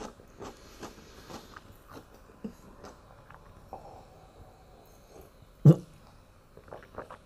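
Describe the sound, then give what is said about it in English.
Wet crunching and chewing of pickles and tomatoes, with irregular bites and smacks spread throughout and one sharply louder crunch near the end. “very delicious pickles. And tomatoes. Very good.”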